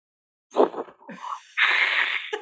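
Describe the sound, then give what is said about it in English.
A person imitates ocean waves with their mouth: a short breathy rush, a brief gurgle, then a long sustained hissing whoosh like surf washing in, fairly loud. “Can you give me the sound of the ocean?”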